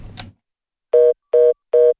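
A telephone line tone of an incoming listener call from Liepāja to a radio call-in show sounds in three short, evenly spaced beeps with a steady mid pitch and a buzzy edge, following a brief click of noise. No one speaks.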